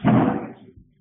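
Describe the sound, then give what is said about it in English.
A door being shut: a brief rushing sweep of air and friction, then a soft, low thud as it settles closed, with no voices. “Yeah, maybe shut the door.”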